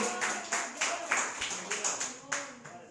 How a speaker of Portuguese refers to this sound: Aplauda ao Senhor Jesus. Glória a Deus, aplauda mais forte ao Senhor.